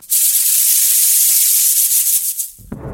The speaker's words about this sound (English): Panic. What was that? I knew I had heard that sound before, but I wasn't sure this would be happening to me. I slowly turned around, and within milliseconds, I realized that it was the sound of a rattlesnake rattling.